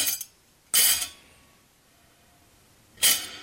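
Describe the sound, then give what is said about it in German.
Dishes clatter in three short, bright bursts, a brief one at the start, then two louder ones about two seconds apart, each trailing off with a noticeable room echo between them. “Wenn jetzt hier mit Geschirr klappert, hört man auch, wie viel vom Raum dann zurückkommt.”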